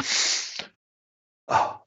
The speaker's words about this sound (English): oh, excuse me, I'm going to sneeze.